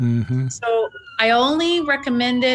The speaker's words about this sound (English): Sorry for the siren.